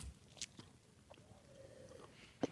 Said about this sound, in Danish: Ja, og så, øhm, jeg tager lige en bid, så prøver jeg at tænke over ja. noget dybt.